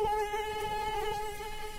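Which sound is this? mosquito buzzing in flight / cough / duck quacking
mosquito buzzing in flight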